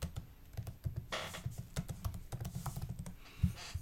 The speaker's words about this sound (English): I hear the typing. Yeah, you're typing. typing away.